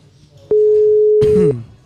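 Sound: telephone busy signal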